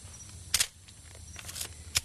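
Crisp camera shutter clicks taking a picture of a poison arrow frog: a quick double snap followed by a couple more single clicks, fairly sharp against a quiet background hum with no talking.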